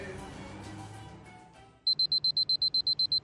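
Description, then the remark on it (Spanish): An alarm clock starts beeping after a quiet, muffled stretch: rapid, evenly spaced high-pitched beeps, loud, repeating in a steady rhythm. “Suena el despertador.”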